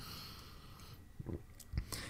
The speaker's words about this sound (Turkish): Bir bardak su içiyorum. Yeni bir bardak su değil. Bir yudum su içiyorum.